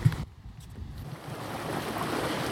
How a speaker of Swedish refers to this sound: Ljudlöst lite bogsvall